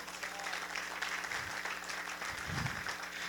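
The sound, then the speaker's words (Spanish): A church audience breaks into steady, sustained applause for the Lord, many hands clapping together at an even volume for a few seconds, with a faint low rumble beneath it. “Dele un aplauso al Señor.”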